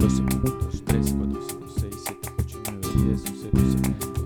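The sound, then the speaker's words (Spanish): Flamenco bulería music, a rhythm of the ternary palos, plays loud, with dense guitar-like strumming and sharp rhythmic accents driving a quick, syncopated pulse throughout, with no voices over it. “Para que me vayan entendiendo, lo que están escuchando es una bulería.”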